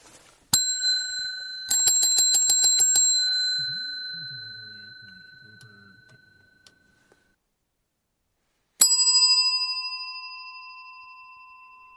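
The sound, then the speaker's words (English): A single bell strike rings out, followed by a quick trill of rapid rings that fades slowly. After a pause, a different bell with its own pitch chimes once and lingers. No voices. “I wonder how many of you can uh, recognize the difference in the bell sounds.”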